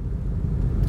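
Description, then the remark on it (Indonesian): A steady low road rumble from inside a moving car, a dense, continuous drone concentrated in the bass with little high-end detail, holding at an even, fairly strong level throughout. “by the way mohon maaf ya kalau audionya agak-agak kecil kita lagi nyobain aja dalam mobil yeah.”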